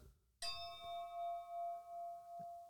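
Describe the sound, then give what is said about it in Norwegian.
A Westvleteren beer glass is struck once and rings out with a clear, sustained tone that hangs and slowly fades, with a couple of soft low knocks near the end and no talking. “Det er da lyden av et Vestvleteren-glass.”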